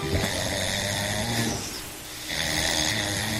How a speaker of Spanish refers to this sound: el marido de … dice … que es guapísimo, pero fíjate cómo roncaba este fin de semana